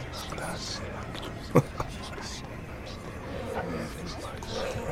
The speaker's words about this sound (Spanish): Pero pasos más adelante, se volvieron a escuchar aquellos murmullos de varias personas.